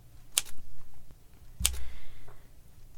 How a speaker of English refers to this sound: Excuse me? Do you work here or are you just testing the typewriter? Shh! Instead of pointing that finger at me, you should try using it on the keys. Perhaps you'll finish before Christmas.